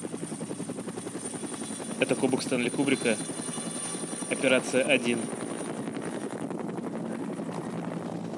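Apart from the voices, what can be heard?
helicopters flying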